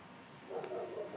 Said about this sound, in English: And my dog just barked in the background, so see?